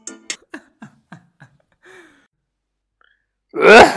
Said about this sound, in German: Was war das gerade, Digga? ich hab's einfach nur so gemacht. Warum? Was habe ich denn gemacht? Ich hatte, ich hatte leichten Husten. Ich hatte ein bisschen. Ich hatte einen Frosch im Hals.